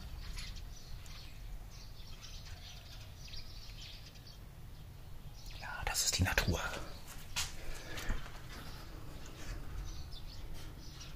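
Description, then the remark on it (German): Faint birds chirp outdoors over a steady low hum, with a brief clattering rustle partway through as a window is opened to air the room; it is cold outside. “Da sind Vögel.”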